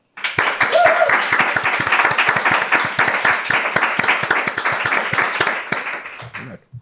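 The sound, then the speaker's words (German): A crowd at a wine tasting in a hall applauds steadily for about six seconds to rate the first of four wines, by Maxi Knebel from the Mosel: a dense, even patter of many hands clapping that holds its loudness before cutting off quickly, with a brief murmur of voices underneath. “Ab applaudiert mal, wie ihr es nacheinander fandet, welcher der beste war.”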